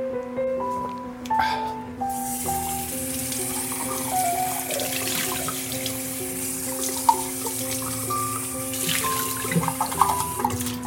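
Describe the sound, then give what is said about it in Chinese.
A tap runs steadily with a broad hiss while a cup is rinsed underneath, with light clinks and shifting splashes as the water hits it, plus a faint tonal hum throughout. “好，杯也洗好了”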